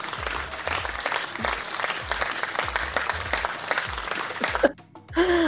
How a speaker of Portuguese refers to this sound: Cadê os aplausos?